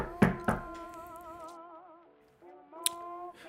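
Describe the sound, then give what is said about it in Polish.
Two quick, solid knocks on a door, followed a couple of seconds later by one more sharp knock, all over a steady, sustained musical tone with no talking. “E, słyszysz pukanie”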